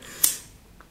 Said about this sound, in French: Attends, je vais en profiter. Buvons un petit gorgée de café.